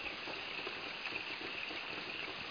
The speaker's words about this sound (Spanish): La lluvia, las ranas.